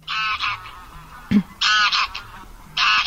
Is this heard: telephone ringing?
no